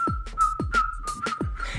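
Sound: human whistling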